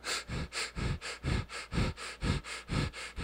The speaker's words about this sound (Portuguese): Trabalha a respiração. E a respiração é, é holotrópico, tu respira assim, ó.